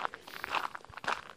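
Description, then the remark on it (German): Footsteps crunching along a forest path during an early-morning walk through a forest at about half past six, a steady walking rhythm of soft steps on leaves and twigs, with no one speaking. “Die ist etwas anders heute, denn ich nehme sie während eines Spaziergangs durch einen Wald auf.”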